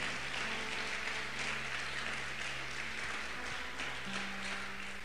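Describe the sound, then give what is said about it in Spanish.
An audience applauds steadily for several seconds, a dense wash of many hands clapping at an even level, with a low sustained musical tone humming underneath. “Si le va a aplaudir, apláudale fuerte al rey.”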